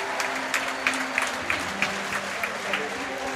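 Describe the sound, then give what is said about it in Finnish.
A large arena crowd applauds and cheers steadily after a championship win, a dense wash of clapping with faint voices mixed in, sustained throughout. “Meillä on vielä hyvinkin parikymmentä minuuttia aikaa seurata tätä humua”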